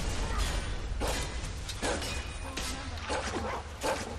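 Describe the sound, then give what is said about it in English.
In a video game, a dog barks in several short, sharp bursts as it fights two bandits by itself, amid clanging, scuffling combat sounds, all loud over a constant noisy background. “One of the dogs is fighting two different bandits down here all by himself.”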